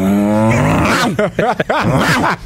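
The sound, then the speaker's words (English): A person imitates a dog, starting with a long, throaty growl and then letting out a rapid series of loud, gruff barks, alone with no other talking. “Wait, that other bark was not a dog.”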